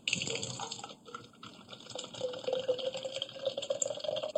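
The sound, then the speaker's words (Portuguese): Water pours steadily into a glass, a continuous gurgling splash with a rising pitch as the glass fills, heard alone without any talking. “tá enchendo o um copo d'água.”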